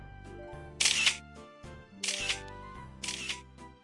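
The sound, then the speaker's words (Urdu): A camera shutter fires three times, each a sharp bright clack roughly a second apart, as photos of many monkeys are snapped at a hot spring, over a soft, steady musical background. “たくさん写真を撮っているのね”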